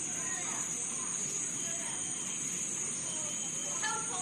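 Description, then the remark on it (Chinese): A dense Amazon rainforest chorus: a steady, shrill drone of insects sits high over a thick wash of chirps and calls from birds and frogs, with one sharper bird call rising near the end. “没错，刚才那的那些声音，你们说的都对，因为这是一个亚马逊雨林，里面有成千上万种声音。”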